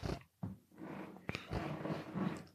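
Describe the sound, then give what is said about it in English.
A chair creaks and groans in a few irregular, rubbing bursts, with one sharp snap partway through; no one speaks over it. “Oh, sorry, that I, chair's making a lot of noise.”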